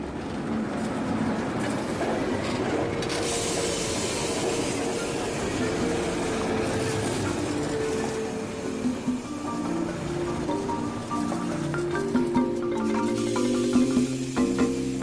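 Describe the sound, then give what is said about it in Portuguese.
A train rolls steadily along the rails, a continuous rumble with faint clattering, and a whining, tonal squeal rising from the wheels during the second half. It is the Seibu Railway sightseeing train '52 Seats of Happiness' in Japan. “Neste programa de hoje, vamos fazer uma viagem lenta, mas romântica, a bordo do trem 52 Assentos de Felicidade.”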